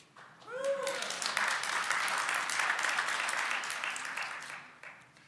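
A crowd of people breaks into steady applause lasting about five seconds, dense clapping that swells quickly and tapers off at the end, with a brief voice just before it starts.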